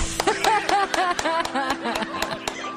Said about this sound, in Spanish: ¡Aplausos!